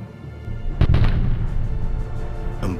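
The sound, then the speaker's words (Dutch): A German grenade explodes very close by, striking just behind a small building, with a heavy, booming blast that rolls into a sustained low rumble, followed near the end by another sharper burst. “bonzende explosie. Een granaat sloeg in net achter het gebouwtje.”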